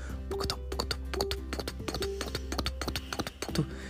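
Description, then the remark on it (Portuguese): Rapid hoofbeats of a galloping horse clatter in an uneven rhythm, sharp knocks repeating steadily over a low background hum, moderately loud. “E eles foram correndo com o cavalo até onde eles ouviram o barulho.”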